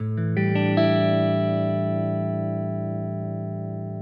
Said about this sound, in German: Ladies and Gentlemen, so klingt ein A7 Sus 4 Akkord, angeschlagen auf einer 1993er Gibson Les Paul Standard.